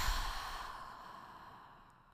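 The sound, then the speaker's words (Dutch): A deep, breathy exhale, airy and soft, fading gradually over about two seconds with no talking, part of a deep breath in and out taken while sitting in silence with eyes closed during a guided exercise. “Zullen we even een diepe ademhaling in en uit.”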